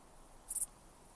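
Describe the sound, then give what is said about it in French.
Grasshoppers stridulating in one short, high-pitched rasping burst of three quick pulses, heard alone against a faint, quiet background with no talking. “Les stridulations des sauterelles.”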